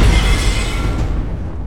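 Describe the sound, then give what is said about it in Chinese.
A loud explosion with a heavy, rumbling low roar and a broad hiss of debris that gradually thins and fades over under two seconds, with no voices. “上一次送了白嫂被绑架的照片，这次送了一个小黑梦的爆炸。”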